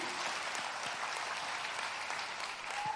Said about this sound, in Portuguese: Uma salva de palmas, gente, para essa galera aqui, esse povo lindo.